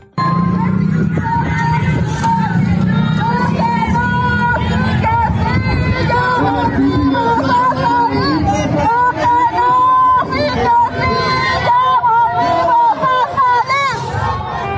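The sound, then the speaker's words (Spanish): A loud crowd of demonstrators protesting at several Colegio de Bachilleres campuses over labor demands, including an 8.2% salary raise, many voices shouting and calling out together in a dense, continuous roar that keeps up for the whole stretch. “Así se manifestaban en varios planteles.”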